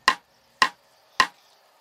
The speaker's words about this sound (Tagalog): Pero sa hindi ko inaasahan, Sir Jupiter, may mga katok akong narinig.